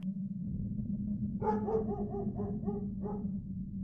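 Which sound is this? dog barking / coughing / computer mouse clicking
dog barking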